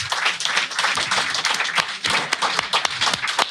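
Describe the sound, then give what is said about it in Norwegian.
A live audience claps steadily, many hands producing a dense, sustained patter of sharp claps, with no talking over it. “Stort takk også til dere som sitter og slår hendene sammen og skaper lyd på den måten.”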